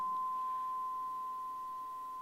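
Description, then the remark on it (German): A steady, unbroken high-pitched beep tone holds at one pitch for the whole stretch, clean and constant with only a faint hiss underneath and no voices. “Das Faszinierende ist, unser Hirn ist darauf geeicht, dass wir irgendwann diesen Piepston nicht mehr wahrnehmen würden”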